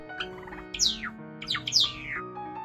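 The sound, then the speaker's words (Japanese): A small Java sparrow on a veranda chirps, giving several quick, bright, downward-sweeping calls in short bursts over a soft, steady tonal hum, with no voices. “縁側では文鳥が父と鳴く。時々、ちよちよともなく。”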